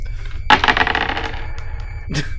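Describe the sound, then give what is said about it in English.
Three dice clatter across a surface in a quick burst of tumbling clicks that fade out, followed by one more brief rattle; fairly loud, with no talking. “So I got three dice? Kitty. No, reference. You'll get no more dice then. No more dice. Roll for me, will you?”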